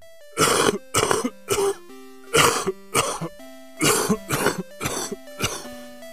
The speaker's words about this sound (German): Mein Nachbar nahm einen Zug von seiner Crackpfeife, hustete laut und sagte